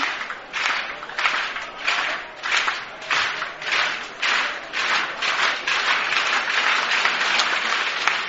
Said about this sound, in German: Ja, Comet-Spieler liegt noch, auch wenn das Publikum jetzt schon schneller klatscht.